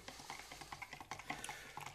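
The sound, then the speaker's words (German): About 100 grams of cashews sizzle in hot oil while being fried hard and tossed and stirred in a frying pan, with steady crackling and quick scraping clatters of nuts against the pan, fairly loud. “Also Cashewkerne scharf in dem Öl anbraten.”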